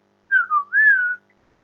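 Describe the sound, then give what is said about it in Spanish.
A person whistles a short three-note phrase, clear: two quick dipping notes, then a longer note that swoops up and slowly falls away, with no one talking. “El nombre silbón está relacionado con el verbo silbar”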